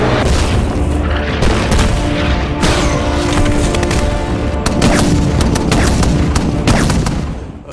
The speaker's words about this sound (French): Il y a de toute façon un énorme travail de might painting, puisque euh, il y a plein d'explosions qui sont faites en Jordanie avec les, les pyramides en feu.